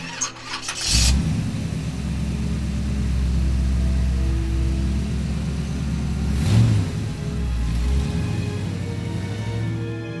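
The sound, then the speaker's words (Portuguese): A car engine cranks and starts after a brief click, then settles into a steady low rumble that rises and swells as it accelerates, fairly loud with no one talking. “Imagine que você passou o dia inteiro no trabalho e quando chega a hora de ir para casa, você pega as chaves do carro, as suas coisas e vai em direção a um descanso até o dia seguinte chegar.”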